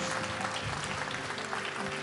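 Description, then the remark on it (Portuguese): A church audience applauding the Lord loudly after a prayer, a dense, steady wash of many hands clapping at once that keeps going without a break for the whole stretch. “Você pode aplaudir bem forte o Senhor aí.”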